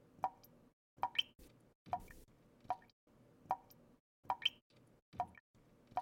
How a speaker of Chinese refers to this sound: 原来是水龙头忘记关紧。唉，真浪费！